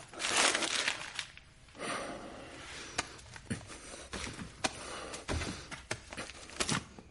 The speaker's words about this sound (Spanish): En el garaje, Walt coge el dinero y lo pone en una bolsa de lona.